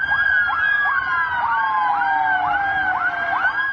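Dozens of new ambulances sent from Ankara drive through Istanbul in the evening with red and blue lights on, their sirens wailing together in rapid, repeating rising-and-falling sweeps, loud, layered over a steady rumble of traffic noise with no voices.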